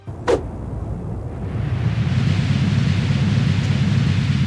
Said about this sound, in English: So that game actually allows you to take someone up to the top of the Empire State Building and do a Zangief spinning pile driver down to street level, and it sounds like this.